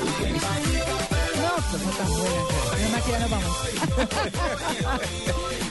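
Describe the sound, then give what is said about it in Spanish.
A loud, dense reggaeton music track with a pounding, steady bass beat and layered melodic parts, playing continuously without any talking. “Pero ya con música suena así.”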